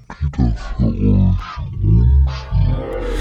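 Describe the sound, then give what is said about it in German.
A human voice slowed way down by a delay effect into a deep, rumbling growl, dragging out low syllables with breathy hissing bursts between them, loud for about three seconds. “Ja, das ist der altbekannte Endeffekt bei der Verzögerung.”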